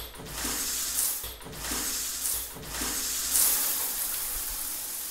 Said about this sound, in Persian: سه بار شیر آب رو باز و بسته میکنم